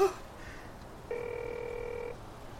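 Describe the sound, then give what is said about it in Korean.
A single steady electronic telephone ringback tone, heard by a man calling from a bench in South Beach, sounds for about a second, clear and moderately loud over a quiet background hiss, then stops. “신호음이 길어져 음성 사서음으로 넘어가기 직전 저 너머에서 목소리가 들려왔다.”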